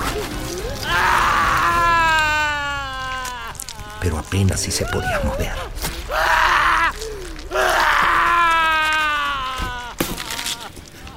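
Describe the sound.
A man screams and groans in pain as a dagger tears the skin from his back, in two long, loud, wavering cries, with a short stretch of spoken narration between them.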